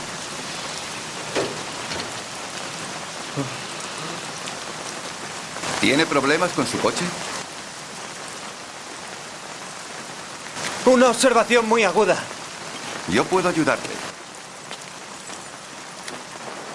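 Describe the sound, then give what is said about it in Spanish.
Steady rain pours down on a street as a continuous hiss throughout, where a man stands beside his wrecked car, with a few short exchanges between voices breaking in over the downpour. “está un ladrón huyendo de la policía y le da un golpe a su coche que se lo deja prácticamente destrozado y está ahí lamentándose bajo la lluvia viendo el resto de su coche y de repente una persona se le acerca y le dice lo que vamos a escuchar ahora.”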